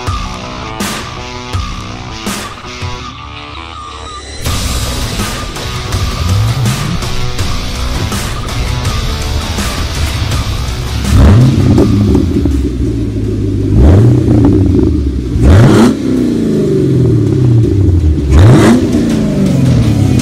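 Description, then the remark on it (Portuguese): A modified Camaro sports car engine idles with a deep, loud rumble, then revs hard several times, each rev rising sharply and dropping back in a rhythmic series. No one speaks. “o vídeo em cima acelerando, a gente acelerando já, carro.”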